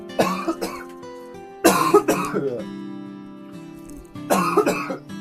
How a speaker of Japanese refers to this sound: ちょっと待って、咳する。ちょっと待って、ちょっと待って。